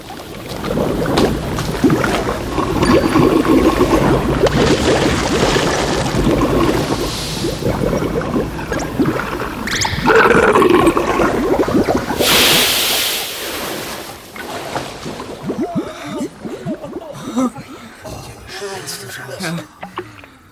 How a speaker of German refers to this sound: Zitternd standen die drei Detektive und Miss Bennet auf dem Weg und sahen zu, wie die Hütte mit einem schmatzenden Geräusch endgültig im Sumpf versank.